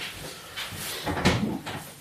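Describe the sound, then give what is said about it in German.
A door being opened: a soft rattle of the handle, then a solid wooden clunk and a brief scrape as it swings, with no voices. “Ich mache mal die Tür auf.”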